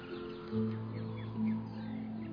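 Faint chirps of small birds singing, partly masked by a steady low hum that swells briefly twice. No one speaks.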